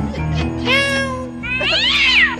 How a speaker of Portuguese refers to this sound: Belinha comeu, Belinha? Belinha! Tem gato na tua casa, lá tem um gato.